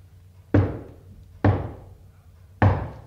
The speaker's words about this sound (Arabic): ابدا دي خبطه عالي